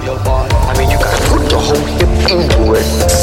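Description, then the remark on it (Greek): Sharp, percussive punch sound effects from various Bruce Lee martial arts films crack out in a quick irregular series in a medley, layered over a dense music track with a voice-like tone mixed in, loud. “μερικά από τα χτυπήματά του, αυτά τα τάκατα που ακούτε,”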